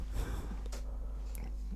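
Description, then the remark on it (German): Short nasal snorts from a dog, a few quick bursts over a low steady hum, no talking. “Entschuldigung, da Hund.”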